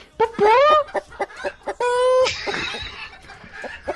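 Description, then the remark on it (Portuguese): A chicken clucks, a run of short choppy clucks broken by two longer, rising squawks, fairly loud and with no one talking over it. “Uma galinha de verdade aí, vai.”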